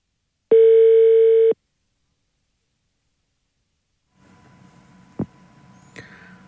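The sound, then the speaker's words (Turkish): A single loud one-second burst of telephone ringback tone, a steady buzzy hum, then silence before faint line hiss and a sharp click as a radio host's call to a listener connects. “Bir arayayım ben şimdi bir saniye.”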